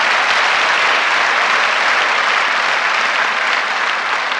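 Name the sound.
audience applause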